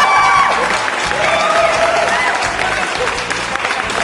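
A crowd applauds loudly and steadily for about four seconds, a dense wash of clapping mixed with scattered cheers and whoops, with no one speaking over it.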